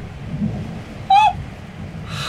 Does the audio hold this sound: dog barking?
no